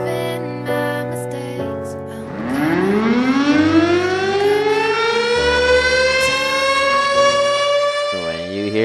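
A civil defense siren winds up after a couple of seconds, its wailing pitch climbing steadily and holding loud over a bed of background music, used as a segment cue on a radio show.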